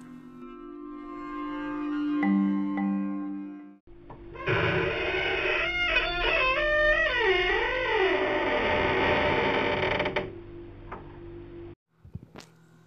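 A broken, half-open door creaks open in a long, wavering groan that rises and falls in pitch, following a low sustained hum and ending with a brief sharp knock.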